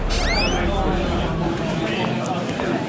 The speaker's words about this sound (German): Ihm kommt der Geruch von Bier und Zigarettenrauch entgegen. Es ist laut. Viele Menschen reden durcheinander.